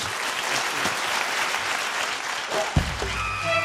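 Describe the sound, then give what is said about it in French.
A dense, steady wash of audience applause for the Quatuor Chalik fills the whole stretch, many hands clapping at once with a few brief tonal sounds poking through near the end. “Merci et encore plein de bravo et d'applaudissements s'il vous plaît pour le Quatuor Chalik”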